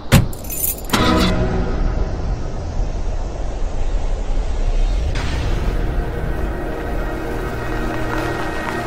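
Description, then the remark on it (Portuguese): Keys jingle brightly for about a second as people get into a car, then the car interior settles into a steady low engine rumble and road hum that continues to the end, with no one speaking. “Vamos entrar no carro então.”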